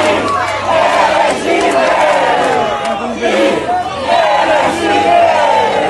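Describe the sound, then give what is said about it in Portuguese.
A large crowd shouts and chants together in a reception for Bolsonaro on his arrival in Brasília from Belo Horizonte, a dense, loud roar of many voices with rising and falling waves of yelling sustained throughout. “pra cena ficar caricata, enquanto a galera gritava, um sujeito, um bolsonarista solitário, fazia aquele sinal de roubo com as mãos.”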